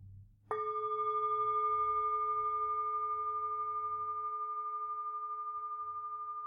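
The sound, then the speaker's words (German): A small, high-pitched singing bowl is struck once in the morning on waking, after the alarm, giving a bright, clear ringing tone that sustains steadily with slight shimmer, faint low rumble beneath at first. “Ich habe ja gesagt, ich habe mir drei gekauft, äh, so eine ganz kleine noch und die wird jetzt so äh, sieben bis neun Stunden später angeschlagen, nämlich wenn ich morgens aufwache.”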